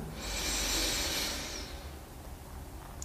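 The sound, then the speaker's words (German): A single deep, drawn-out inhale through the nose, clearly audible, with an airy, breathy hiss lasting about a second and a half before fading into quiet: the second deep breath taken during a guided meditation. “Wir nehmen den zweiten tiefen Atemzug und atmen ein.”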